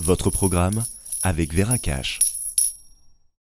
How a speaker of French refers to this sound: Écoutez, c'est le bruit d'une épargne composée d'or et d'argent métal.